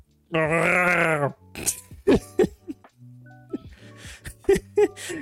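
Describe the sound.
A person imitates a mighty howl with their voice, a loud, sustained howl-like cry lasting about a second, then breaks into short bursts of talk and vocal noises.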